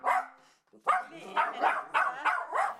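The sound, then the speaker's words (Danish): A dog, one of two dogs named Lili and Albi kept on a sofa, barks, a brief pause after the first bark and then a quick run of five or six sharp, fairly loud barks with no voices. “To hunde, Lili og Albi, holdt dem i selskab.”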